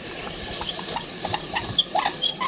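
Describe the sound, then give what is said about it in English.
A hand crank apple peeler turning as apples are peeled during a kitchen canning demonstration, giving off a steady stream of light mechanical clicks and ratcheting rattles with a few sharper squeaky ticks, no voices. “You'll recall the fun hand crank apple peeling gadget”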